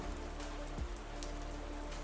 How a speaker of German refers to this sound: Es regnet. Esik az eső. Esik az eső.